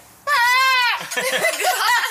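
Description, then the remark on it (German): A voice mimics a goat's bleat with a loud, quavering, sustained call, followed by a shorter wavering, nasal bleat-like vocalization. “Das ist, auf das ist so wie die Ziege.”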